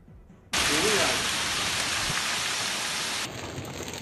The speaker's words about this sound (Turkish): Sağnak ve dolu bir anda bastırdı. Ana arterler göle döndü.